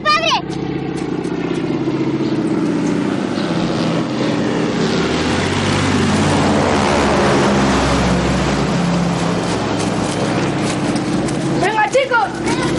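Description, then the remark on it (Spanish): A small propeller plane's engine drones loudly and steadily overhead as it flies over a village and passes close to a church, with brief raised voices near the start and again at the end. “Al oír una avioneta, Carol mira hacia el cielo.”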